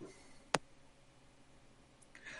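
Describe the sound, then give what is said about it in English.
A single sharp click as a person mutes and unmutes themselves on a call cuts briefly through a quiet, hissy background. Nobody speaks, and there is only faint room noise before and after. “You click every time you mute and unmute yourself.”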